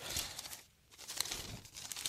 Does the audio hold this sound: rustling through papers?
yes